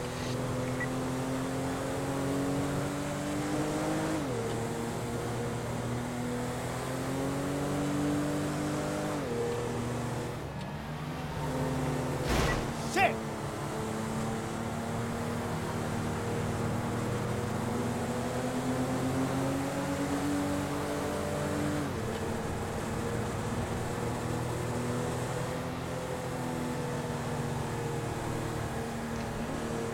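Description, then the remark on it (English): A police car engine revs steadily while the car drives, responding code 3 to a panic button call. Its droning pitch rises and drops with gear shifts, and a couple of sharp knocks sound partway through. No one speaks. “Rocky 90 will be responding code 3 to that panic button.”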